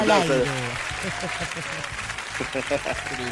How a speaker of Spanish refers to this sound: los aplausos de fondo.